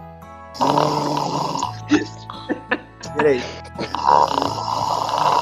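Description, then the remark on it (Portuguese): A person makes two long, loud, rasping snoring sounds, apparently imitated by voice, with a brief spoken word and a few short vocal noises in between. “E, isso se, se, o, se o Tyson estiver jogando nada, tu, tu ronca.”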